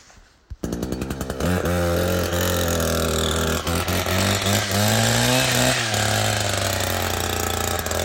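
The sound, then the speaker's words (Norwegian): A petrol chainsaw in a forest pull-starts with a brief sputter, then roars loudly and continuously, its engine pitch wavering and rising slightly as the throttle changes, with no talking. “Det er liksom forskjellen på de der bensinsagene og de elektriske.”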